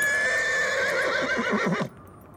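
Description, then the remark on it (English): A horse whinnies loudly, one long shrill call that wavers and trembles downward before cutting off abruptly, with no voices over it. “Dusty's my horse here. We gotta cover his eyes, else he'll spook and run off”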